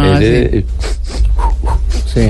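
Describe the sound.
A voice imitates a steam locomotive with a burst of quick, rhythmic panting breaths through the nose, a breathing exercise taught in school physical education, loud, framed by brief voiced sounds at the start and end.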